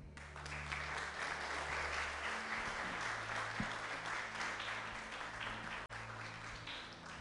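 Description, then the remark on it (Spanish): An audience at a church service applauds for the Lord steadily for several seconds, a dense, continuous wash of many hands clapping at once, with low sustained tones humming underneath. “Dale un aplauso al Señor.”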